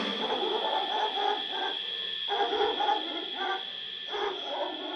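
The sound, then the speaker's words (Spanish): A dog barks repeatedly in the distance, a string of muffled, echoing woofs over a steady background hum with no one speaking. “A lo lejos, un perro.”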